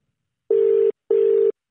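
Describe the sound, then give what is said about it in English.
A phone's outgoing ringback tone: two short, steady buzzing pulses in quick succession, a clear double ring heard alone with no voices. “It's ringing.”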